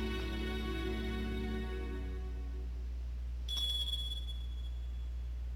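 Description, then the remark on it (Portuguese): A small jingle bell rings once, giving a bright, high metallic ping that lingers and fades, following a faint, sustained tonal hum. The ring is fairly quiet. “Olha o sininho. Aham. Eu acho que eu vi o barulho de um guiso.”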